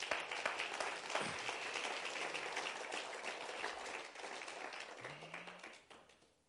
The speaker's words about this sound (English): Give Caleb and his wife one last round of applause.